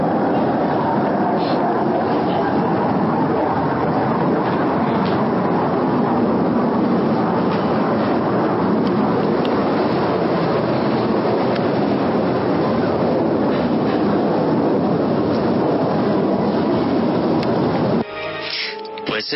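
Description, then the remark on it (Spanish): A recording of a reported skyquake (cielo moto) from Manizales, in Colombia's Eje Cafetero region, heard by thousands of people with no aircraft in the sky. It is a loud, continuous, roaring drone that holds steady for about eighteen seconds, then drops away abruptly as brief voices come in at the end. “Supuestamente es un cielo moto de Manizales”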